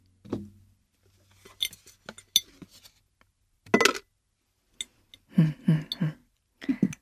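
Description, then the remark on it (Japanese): A coaster is dropped into a glass jar, giving a series of light clinks and rattles against the glass, with scattered taps and a few louder knocks spread over several seconds. “はいではこのコースターもガラス瓶に入れて保存したいと思います”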